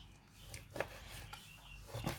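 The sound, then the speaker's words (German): A few irregular knife chops knock softly against a wooden cutting board, separated by brief pauses over a low background rumble, as pork and beef are cut into smaller cubes. “Ich schneide es gerne ein bisschen kleiner, weil mir die Stückchen immer sehr, sehr groß sind.”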